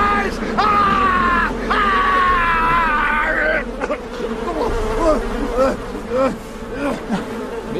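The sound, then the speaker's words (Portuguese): In a film scene, a dense swarm of bees buzzes loudly and steadily throughout while a man screams in long, strained wails, his cries breaking into shorter anguished yells over the droning hum. “Not the bees! Ai, cara, essa cena das abelhas.”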